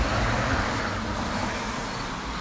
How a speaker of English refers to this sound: There goes a cool truck going down the road with no muffler.